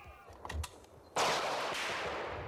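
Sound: burst of gunfire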